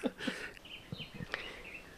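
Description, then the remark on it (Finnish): A small bird sings a run of quick, high chirps and warbling notes, with soft low thumps and faint background noise between phrases. “Mä en edes tunnista, mikä lintu hän on.”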